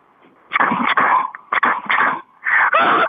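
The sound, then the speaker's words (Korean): A third-year middle-school student mimics a steam locomotive with three loud, breathy chuffing bursts, the second broken into quick puffs, each a harsh hiss of air separated by short pauses. “다시 한번 증기기관차 들어볼게.”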